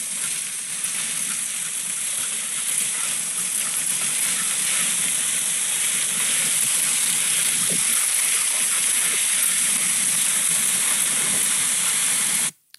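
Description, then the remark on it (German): A dog sled pulled by four or five dogs glides over a snowy frozen lake, its runners making a steady, unbroken hiss that holds an even loudness for several seconds before cutting off abruptly. No one speaks. “Ich, äh, ein Video äh, abspielen, damit man mal hört, was man hört, wenn man auf so einer ähm, bei so einer Tour unterwegs ist, weil das ziemlich nice ist, diese Geräusche.”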